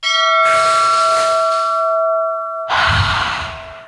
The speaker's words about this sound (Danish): hvornår fik du allermest brug for den her lille klokke at slå på? Hvilken gæst fik dig til at tænke, nu skal jeg sætte trække vejret dybt?